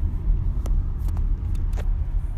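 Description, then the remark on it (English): A steady low engine rumble from inside a car moving through bad traffic near central Phoenix during moving week at GCU, with a few faint clicks and rattles over the continuous road noise; no one speaks. “but traffic's getting pretty bad.”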